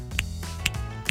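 Three crisp finger snaps, evenly spaced about half a second apart, sharp, over a low steady hum in the background.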